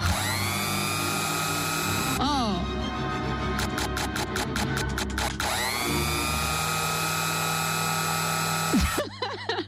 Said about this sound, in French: Bah, enfin, si, euh, euh, la cinquième symphonie de Beethoven, mais il y a un truc là, il y a un bruit de mixeur, c'est un peu gênant.